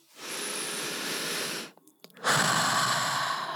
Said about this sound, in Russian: когда мы набираем воздух в полные легкие, мы делаем перезагрузку организма мы насыщаем кислородом, и все токсины выходят с угл- углекислым. Мы делаем перезагрузку мощную.